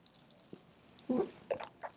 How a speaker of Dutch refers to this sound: Ik neem even een slokje water ondertussen.